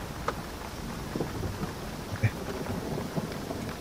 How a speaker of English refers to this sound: With this level of storm going on, I'm not sure it would be noticeable.